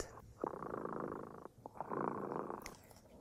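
A cat named Dremota purrs in two long, steady rumbling stretches separated by a brief pause, with a soft breathy rhythm and no voices.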